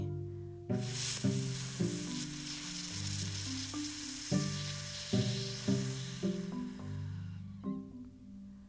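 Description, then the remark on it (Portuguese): A voice makes a long, steady "fff" fricative, the sound of the letter F made after an inhale, a breathy hiss held for about eight seconds, while soft music with gentle notes plays underneath. “Soltou o A, inspirou e o som do F.”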